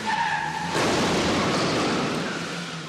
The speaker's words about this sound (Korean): 하지만 그 순간 도로로 뛰어드는 준상을 향해 달려드는 트럭 공중에 붕 떠오르는 준상